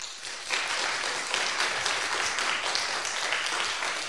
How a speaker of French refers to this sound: Alexandre Moati s'est déplacé à Nancy. Auteur de plusieurs livres de critique de la science, il est notamment de celui qui s'intitule Islam et science, antagonisme contemporain. Mesdames et messieurs, je vous demande de l'applaudir.